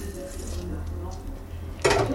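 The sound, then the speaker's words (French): Metal utensils clink softly against a saucepan while butter melts over low heat for a béchamel sauce, ending in a louder, brief clatter near the close, over a low steady hum with faint voice in the background. “Tu vois, je vais faire venir le beurre à feu doux dans la casserole.”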